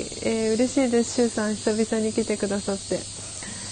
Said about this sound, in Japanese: セミの鳴き声いいですね」ということでありがとうございます。